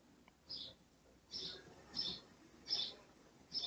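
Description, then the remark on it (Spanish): A small bird chirps in the background about five times, high-pitched short tweets spaced irregularly over a few seconds, soft against a quiet background hiss with no talking. “hoy tenemos un pajarito de fondo en vez de un perro ladrando.”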